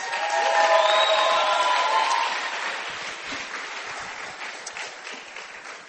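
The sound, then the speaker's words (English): A crowd claps steadily and cheers for the stars of the day's performance, with bright whoops and shouts rising over the applause early on, then the clapping and cheering gradually taper off. “Clap for the stars.”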